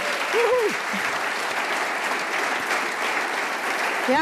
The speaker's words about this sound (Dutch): Dat daarna van Straten Medical een eervolle vermelding nou, krijgt. Nou, mooi. Groot applaus.